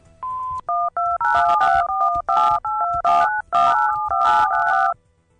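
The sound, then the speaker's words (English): A rapid sequence of touch-tone telephone dialing beeps from several phone keys pressed at once, about a dozen short, bright dual-pitched tones in quick succession, some overlapping into a busy chirping burst, with no talking. “Yeah, I think the tones interfere with each other, so it's not as easy as, as I'd like it to be.”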